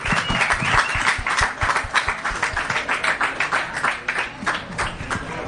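Sustained applause from a sizable crowd at a cosplay event, welcoming the next two cosplayers, dense overlapping clapping that stays loud and steady throughout, with a few faint voices mixed into the noise.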